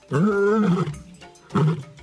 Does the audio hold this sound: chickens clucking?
no